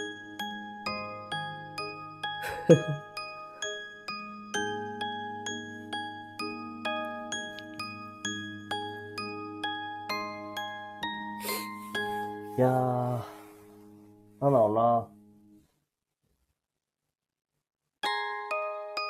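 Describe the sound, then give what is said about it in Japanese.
A delicate music box melody plinks out bright, evenly plucked notes over a soft low accompaniment, then briefly pauses while a voice speaks before the tinkling tune resumes. “このオルゴールの音を探すのもちょっとまず大変だったんだけどね。”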